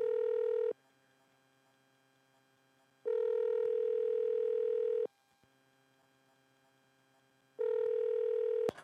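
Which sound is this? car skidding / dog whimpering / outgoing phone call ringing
outgoing phone call ringing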